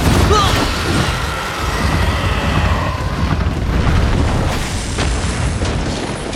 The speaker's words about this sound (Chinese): 巴德尔下意识的一个侧翻，闪过了小娘炮的进攻。体型巨大的小娘炮来不及调整，一头撞在废墟上，昏倒在了一片碎石之中。